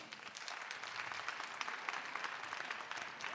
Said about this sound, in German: Jetzt erstmal euer Applaus für Romans in Mainz. Seid ihr unten durch? Euer Applaus.